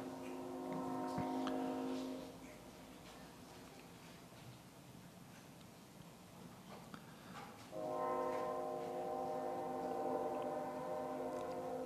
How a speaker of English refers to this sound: Lord, I'm mindful with the sound of that train that there are just constant uh, potential distractions that would seek to rob us from hearing from your word this morning over the next little bit.